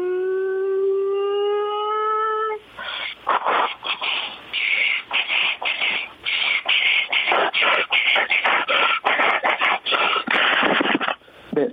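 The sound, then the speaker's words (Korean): A voice imitates a subway train pulling away: a steady, slightly rising whine, then a long run of loud, breathy hisses and rhythmic clattering bursts, with no other talking. “와 지하철 출발.”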